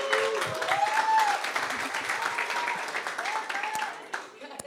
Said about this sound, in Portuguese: Uma salva de palmas